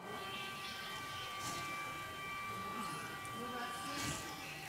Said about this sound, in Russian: включили на своих телефонах э, запись Э, звука сирены, которая включается в Украине во время воздушной тревоги.